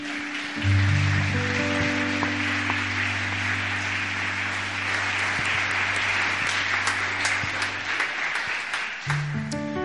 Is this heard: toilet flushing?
no